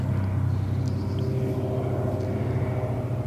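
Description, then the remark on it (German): A steady, low droning rumble of an airplane passing overhead above a forest fills the whole stretch, fairly loud and unchanging, with a few faint high chirps in the background and no one talking. “Nebst den Milanen auch irgendein Flugzeug”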